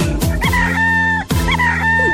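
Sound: rooster crowing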